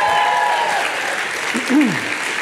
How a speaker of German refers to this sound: Guten Abend, ICF. Hallo, ihr dürft ruhig klatschen, das hilft uns. Das hilft.